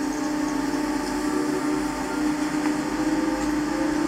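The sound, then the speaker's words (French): A chairlift motor speeds back up after being slowed, droning loudly and continuously, a dense mechanical hum with a steady low tone running throughout, with no voices. “Regarde, ça commence à accélérer. Un coup bout du moteur, tu entends.”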